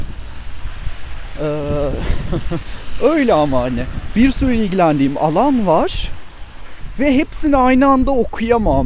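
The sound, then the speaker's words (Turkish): Steady low rumbling wind buffets the microphone throughout while recording outdoors on a walk in nature, a dull roar sitting under a woman talking and laughing. “Ya bu rüzgar sesi de çok sinir bozuyor.”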